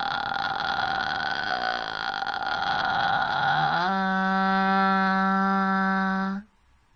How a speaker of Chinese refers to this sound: 那我们在学会了发气泡音的时候，在这个基础上，我们再延伸一下，从而呢找到你这个最自然的发声状态。看我的示范。